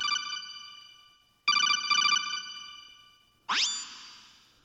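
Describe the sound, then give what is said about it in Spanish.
An electronic phone ringtone for an incoming call chimes in a few bright, decaying bursts, then ends with a quick rising, boing-like sweep. No one speaks, and the tones are clear. “y ahora mm, dejadme un momento porque tengo, me ha entrado una, me una llamada por aquí.”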